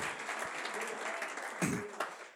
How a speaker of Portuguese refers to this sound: Você pode dar uma salva de palmas ao nosso Deus por causa disso?